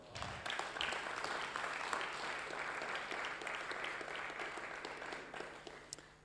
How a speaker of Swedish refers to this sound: Kan vi inte ge lovsångarna en applåd?